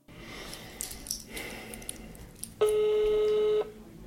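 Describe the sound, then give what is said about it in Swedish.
Telephone dialing as a call is placed to a person: a few seconds of clicky, hissy handling noise, then one steady, loud ringing tone lasting about a second before cutting off. No one speaks. “Jag ringer upp Irene Hagström för att fråga hur hon ser på sina båda roller.”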